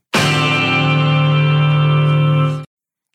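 The famous opening guitar chord of a rock song: one loud, bright, jangling chord struck once and left ringing for about two and a half seconds before cutting off abruptly.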